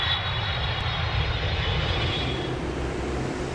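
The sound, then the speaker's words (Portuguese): A loud, steady airplane engine roar fills the whole stretch, a dense low rumble with a high whine that fades slightly toward the end, as a passenger plane throttles up to abort its landing and go around on the control tower's orders. “Ué, o avião tá decolando de novo?”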